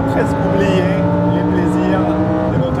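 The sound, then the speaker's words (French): A naturally aspirated 5-litre V10 engine producing 640 horsepower runs loud, its dense harmonic drone holding mostly steady with slight pitch shifts as the revs rise and dip over a few seconds. “Sa cavalerie compte 640 chevaux, toujours tirés d'un V10 5 litres atmosphérique, mécanique qui a littéralement envoûté Laurent Chevalier, notre confrère de Sport Auto.”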